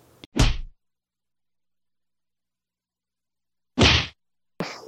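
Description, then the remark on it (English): Sharp, loud slap hits ring out against silence: one near the start, then after a long pause two more in quick succession, each a crisp smack with a brief tail. “You've been slapped.”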